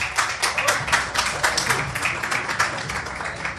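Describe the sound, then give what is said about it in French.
An audience claps steadily, a dense stream of many overlapping hand claps at a fairly even level for several seconds, with no voices standing out. “On peut les applaudir, on peut les, les accompagner.”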